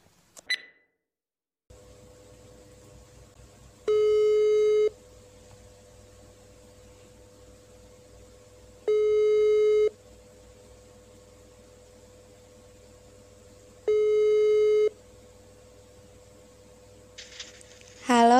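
A telephone ringback tone sounds three times while placing a phone call, each a steady tone about a second long with roughly four-second gaps, over a faint background hiss, before the call connects.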